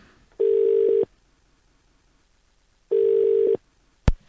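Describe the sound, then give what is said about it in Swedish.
Two steady ringback tones, each lasting under a second with a long pause between, signal an outgoing phone call to a waiting guest, followed by a sharp click as the line connects. “Vi börjar direkt med England och då ringer vi upp vår gäst som jag vet sitter redo och väntar på det här telefonsamtalet.”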